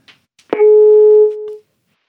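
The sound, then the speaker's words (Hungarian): A sharp click on the line as a phone-in guest drops out of the call, then a single steady telephone busy tone that holds loudly for about a second before cutting off into silence. “és eltűnt a vonalból Majzik Nándor, ha minden igaz”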